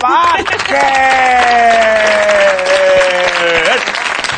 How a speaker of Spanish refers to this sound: ¡El verdugo! ¡Aplauso para